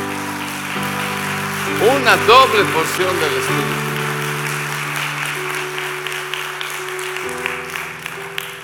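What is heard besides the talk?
church audience applause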